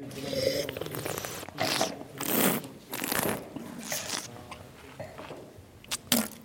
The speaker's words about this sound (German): Es wird gerochen, geschlürft, gekaut und dann wird der Schluck Wein wieder ausgespuckt, weil ja alle noch heimfahren wollen.